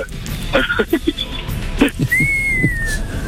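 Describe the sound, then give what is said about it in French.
After some laughter and brief voices, a man gives a single short whistled cry of joy, a bright, steady note that glides slightly downward for about a second. “faites-moi un petit cri de joie pour voir comment c'est la joie chez … quand il est content”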